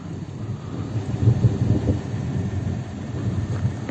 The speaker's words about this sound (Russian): Звучали раскаты грома из-за электростатического напряжения в пепловом облаке.